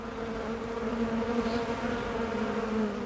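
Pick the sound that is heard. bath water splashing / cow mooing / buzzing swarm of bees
buzzing swarm of bees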